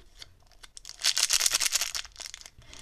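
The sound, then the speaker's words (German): A package of chewy sweets is torn open with a crackly, papery rip, starting with a few small snaps and swelling into a loud, sustained crinkling tear before trailing off into quieter rustles. “Wie, man, wie ihr hört, ist das eine, eine Packung, das andere nicht.”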